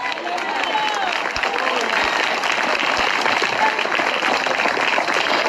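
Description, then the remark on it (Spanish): An audience breaks into sustained applause for the Lord during a sermon, a dense, steady wash of many hands clapping at an even loudness, with a few murmured voices and cheers mixed in throughout. “Siempre el Señor ese aplauso, los fuerte.”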